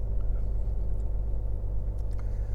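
A steady, deep engine rumble fills the cabin of a moving truck, a constant low drone with faint road noise on top and no talking.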